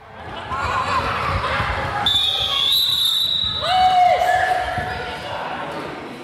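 Balls bounce repeatedly and irregularly across a busy sports hall, Skovbyhallen, during a children's ball training called boldbanden, a DGI initiative for kindergarten-age children, mixed with children's chatter and occasional high-pitched squeaks of shoes on the floor, echoing.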